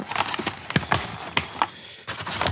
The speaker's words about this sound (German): Ah, eine Tüte, ich sehe eine Tüte. Ich nehme die Tüte aus der Kiste.